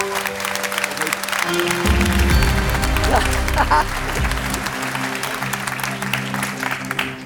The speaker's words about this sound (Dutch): Dus daarom staan jullie hier, opgenomen in de selectie 2023. Heel erg mooi. En wij gaan gewoon door, ja! Geef een applaus.